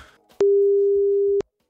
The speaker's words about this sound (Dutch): Maar goed, eh, we gaan eens even bellen met de directeur eh, van Wagenborg Sleepdienst.